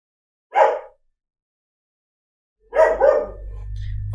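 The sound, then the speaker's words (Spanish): A dog barks once, then after a pause lets out a quick double bark, loud, followed by a low steady hum in the background. “Justo mi perro se puso a ladrar ahora.”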